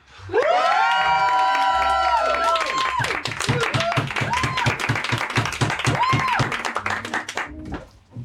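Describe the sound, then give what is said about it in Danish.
An audience in a room cheers loudly for an artist's work, with high whoops and shouts for the first few seconds, then dense rhythmic clapping continues steadily, fading slightly at the end. “Hvor højt kan I juble over, øh, over Mathias' kunst?”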